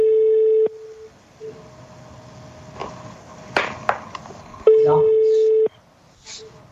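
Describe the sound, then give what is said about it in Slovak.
A telephone ringing tone plays over the line: two steady, mid-pitched beeps lasting about a second each, separated by a long pause in which quiet voices talk. “To nás, to, to nás zrušilo už? Nie, to ešte zvoní.”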